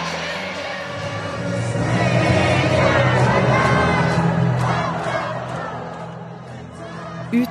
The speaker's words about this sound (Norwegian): På banen dansa de britiske spillerne med tårer i øynene. Og til allsang fra en fullsatt Wembley stadion. Det er ingen tvil om at det her, det er stort.